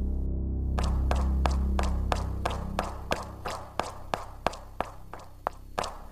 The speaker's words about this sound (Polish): Za plecami słyszę odgłos małych kroków na śniegu.